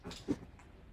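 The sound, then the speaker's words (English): A female dog smushes her face into a sheepskin rug while trying to get comfortable, making a soft muffled rustling, snuffling and snorting with one slightly louder push near the start, then quieter scuffling. “She's smushing her face in a sheepskin.”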